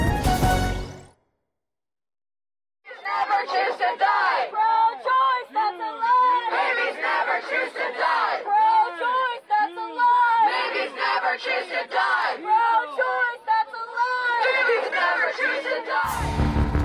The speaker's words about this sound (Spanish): Así se oyen las voces de quienes protestan a las afueras de la Corte Suprema de Estados Unidos.